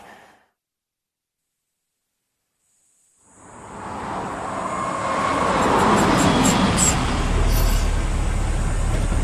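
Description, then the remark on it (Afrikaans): After a few seconds of silence, a car's engine and road noise swell in, growing steadily louder with a deep low rumble as it drives. No one speaks. “Ek vat gaan my kar.”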